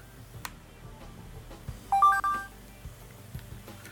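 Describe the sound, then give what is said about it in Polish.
A short electronic phone chime plays in sound mode as the phone starts charging from a power bank, a few quick bright tonal beeps stepping in pitch, moderately loud over a low background hum with faint clicks before and after. “Pojawił się Ładuję. dźwięk.”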